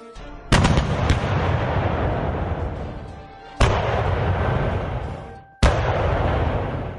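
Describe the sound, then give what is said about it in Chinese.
A chain of sharp explosions inside a building: three loud blasts spaced a few seconds apart, each trailing into a long rolling rumble, with a few quick crackling pops after the first, like New Year firecrackers. “就听见楼里面响起一连串的爆炸声，听起来就像过年时放鞭炮一样”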